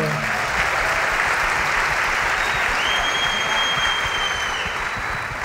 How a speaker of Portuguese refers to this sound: Palmas de novo, galera.